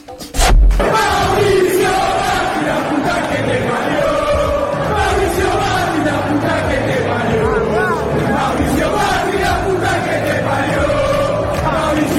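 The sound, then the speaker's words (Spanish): A large crowd of football fans sings a chant against Macri together in the Bombonera stadium, a loud, sustained wall of voices with a steady melodic rise and fall, opening with a sharp thump. “Lo que se dio a conocer como el hit del verano, que eran las, las hinchadas cantando contra Macri. Sí. Bueno, se produjo también en la bombonera y a mí al menos me sorprendió mucho.”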